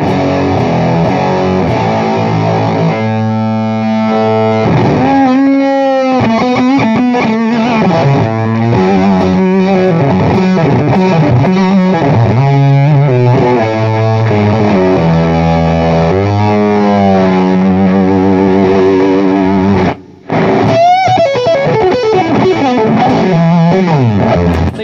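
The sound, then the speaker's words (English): A heavily distorted electric guitar played through a pedal, loud and continuous, with sustained gritty notes, bends and quick melodic runs, briefly cutting out near the end before resuming. “It's really, it's really like top, top rips your head off”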